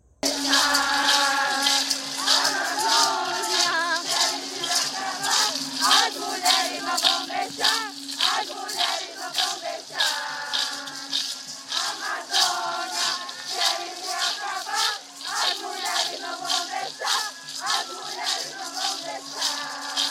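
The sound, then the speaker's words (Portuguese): A crowd of indigenous women chanting war cries together while marching in the second March of Indigenous Women, loud and sustained, with rising shouted phrases repeating in a steady rhythm over about twenty seconds and a constant low hum beneath. “Enquanto marchavam, gritos de guerra eram entoados.”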